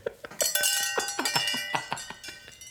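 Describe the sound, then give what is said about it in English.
Metallic ceremonial chimes being rung in a quick, uneven flurry of about a dozen bright clanking strikes, their tones ringing on and overlapping, fairly loud with no voices. “let us ring the ceremonial Pop culture combat chimes”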